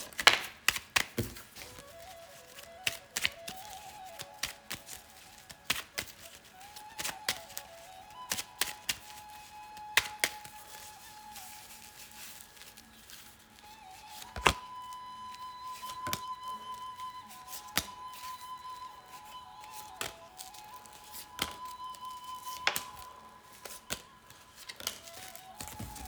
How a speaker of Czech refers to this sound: Já už se dívám na vaše fotky, a míchám u toho karty a my se spolu podíváme, co nám Tarot poví o vás dvou.